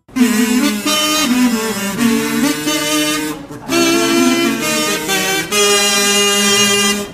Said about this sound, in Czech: Tuto znělku můžou poslouchat čeští poutníci pokaždé, když přichází hlášení informací, když na pódium vstupují moderátoři